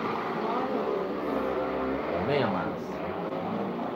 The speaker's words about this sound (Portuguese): uma moto passando na rua aí agora.